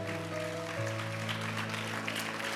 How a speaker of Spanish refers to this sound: Ponte en pie, mi amado, y rindámosle un aplauso fuerte al Señor con todo tu ser.